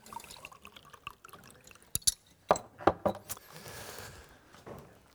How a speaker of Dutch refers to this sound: Dankjewel. Even een glaasje water.